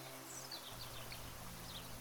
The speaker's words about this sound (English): The sound of whispering rain falling outside blends with the birdsong from the courtyard. you recognize the sound of the cinnamon sparrow, the swifts,